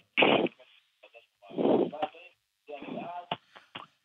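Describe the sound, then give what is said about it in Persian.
A television plays in the background of a phone call from a caller in Nazi Abad, Tehran, its voices tinny and muffled by the line, coming in several short bursts separated by brief pauses. “اگه ممکنه اگه ممکنه صدای تلفن صدای تلویزیون تو کم کن تا از تلفن با هم دیگه صحبت کنیم”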